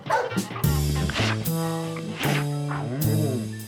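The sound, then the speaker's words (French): A large dog, a German shepherd belonging to a saxophonist, barks loudly, four deep barks spaced about a second apart with faint whimpering tones between them. “Après des retards en série et indifférent au sujet de son berger allemand que le saxophoniste aurait voulu faire monter sur scène avec lui, … est remercié.”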